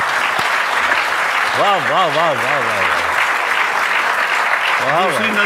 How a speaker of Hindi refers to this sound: तालियों को रोकने मत दीजिएगा